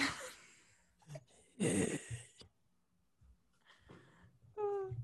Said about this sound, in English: your mic is up so loud. Sorry, it's just I can hear … breathing